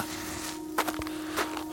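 A few footsteps behind someone on an icy, snow-covered street at night land in quick, uneven succession and then a last one after a pause, over a steady low background hum with no voices.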